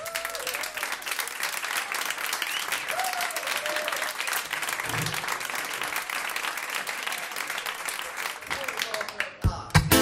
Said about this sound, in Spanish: Un aplauso para él.